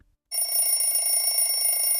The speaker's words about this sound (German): Als der Wecker am nächsten Morgen klingelte, schnellte Elias mit einem Ruck aus dem Bett.